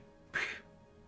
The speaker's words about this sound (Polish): Na zdrowie.